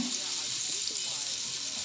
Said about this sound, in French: Et je vais mettre du beurre. Donc là, le beurre il crépite. En mettant la poêle vraiment là euh, à feu très doux pour éviter de brûler le beurre et d'avoir un beurre noir euh, qui va donner euh, trop de goût à la pâte et un goût de brûlé.